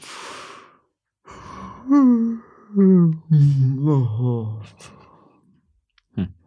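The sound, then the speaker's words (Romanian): Someone stifles a yawn with the mouth shut: a breathy intake, then a long muffled nasal hum that rises and sags in pitch, followed by a brief exhale. “Este căscatul uh, ascuns.”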